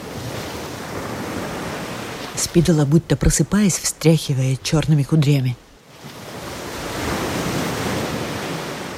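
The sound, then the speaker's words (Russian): Stormy waves of a raging lake outside castle walls roar as a steady, broad wash of rushing water, with fish beating against the walls and a voice briefly speaking over it in the middle before the churning surge carries on alone. “Озеро бушует, рыба бьется о стены.”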